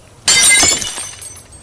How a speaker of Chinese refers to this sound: 盛饭菜的碗也被摔碎了。